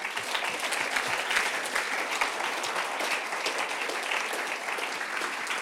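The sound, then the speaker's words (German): Sustained audience applause given in advance at an evening event for speaker Lukas Amstutz, co-president of the Mennonites. It is a dense, steady patter of many hands clapping at an even loudness for several seconds, with no voices standing out. “Schon mal einen Vorschuss Applaus für dich.”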